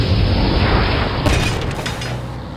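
A loud, heavy blast of a witch's magic strike rumbles throughout, then a sharper crash bursts in partway through as someone is hurled into a pile of rubble, debris crumbling and scattering as the roar slowly fades. No one speaks.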